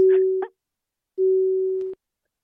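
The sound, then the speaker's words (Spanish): A telephone busy signal after the phone line failed and the call dropped: two steady, moderately loud beeps of the same low pitch, separated by a short silence, with faint line noise and clicks around them. “Creo que hasta, creo que hasta el teléfono nos falló”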